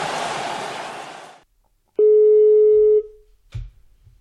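A burst of crowd-like noise fades out, then a single steady ringback tone sounds for about a second on an outgoing phone call to a VG sports journalist, followed by a faint click and rustle.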